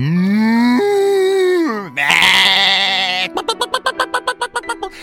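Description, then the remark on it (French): A sheep bleats once, a loud, bright, wavering cry lasting about a second. It comes right after a long low moo from a cow and is followed by a quick run of sharp clucks from hens. “suivi de la vache, des moutons et des poules qui meuglaient, bêlaient et gloussaient à qui mieux mieux”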